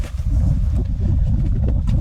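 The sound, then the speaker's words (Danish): Strong wind buffets the microphone in a continuous, loud low rumble with gusty fluctuations and no speech, like a roaring engine-like blast. “Og det blæser helt vildt, men vi er inde igen om lidt.”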